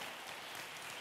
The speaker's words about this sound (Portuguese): pode aplaudir o Senhor